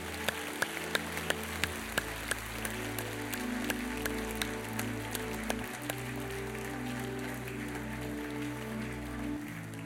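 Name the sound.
audience applauding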